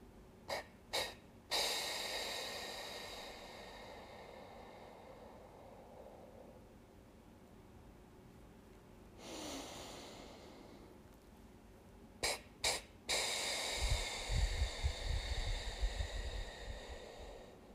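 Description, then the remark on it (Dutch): A slow, soft breath drawn in through the nose to the belly, followed by three breathy puffs of exhaled air, two short and the third longer and sustained to blow out fully, alone with no talking; a three-puff breathing technique for childbirth. “Dus je hoort dat je rustig inademt en dat je drie keer puft.”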